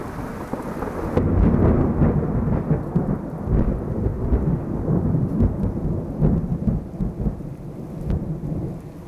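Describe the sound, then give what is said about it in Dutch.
Deep, rolling thunderclaps rumble loudly through a thunderstorm with lightning, a sustained low roar that swells after the first second, with steady rain hissing underneath and no voices. “Amper een dag oud en nu al donderslagen en bliksemflitsen.”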